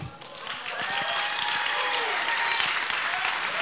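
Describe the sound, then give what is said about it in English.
A crowd applauds a coach who has just finished a talk, steadily and loudly throughout, a dense wash of many hands clapping at once, with a few cheering voices rising over it. “Come on, give it up”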